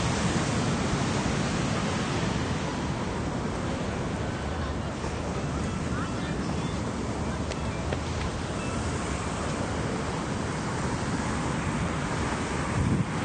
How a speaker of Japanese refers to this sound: 波が結構強いですね